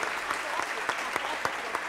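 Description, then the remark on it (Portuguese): A church audience applauds steadily, many hands clapping in a dense, continuous wash with a few sharper individual claps standing out at irregular moments. “Dá um aplauso, pastora.”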